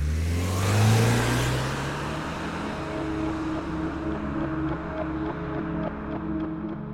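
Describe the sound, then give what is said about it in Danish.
A car engine revs hard and roars as two men flee a shooting in the car and speed off, the loud throaty drone peaking early and then holding steady with no one talking. “Efter skyderiet flygter de to mænd ind i en bil, der holder i nærheden. De kører derfra i høj fart.”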